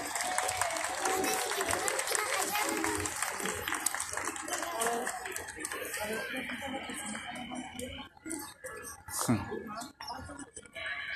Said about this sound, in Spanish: Un fuerte aplauso también para los amigos del Gas Plus.